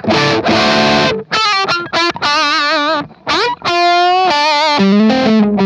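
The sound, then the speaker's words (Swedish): An overdriven electric guitar played through an amplifier plays a series of sustained notes and short phrases with a bright, slightly gritty edge as the overdrive cleans up, with brief pauses between them. Loud, no voices. “Men den, den cleanar eh, också upp snyggt tycker ja.”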